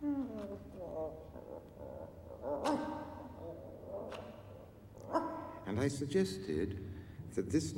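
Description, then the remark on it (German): A dog barks in a series of sharp barks and yips, the bursts coming irregularly and growing busier toward the end. “Letzte Woche habe ich über den Hund gesprochen und wir haben uns Hundegebell angehört.”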